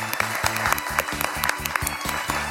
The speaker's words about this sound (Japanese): もう一度皆様大きな拍手お送りください。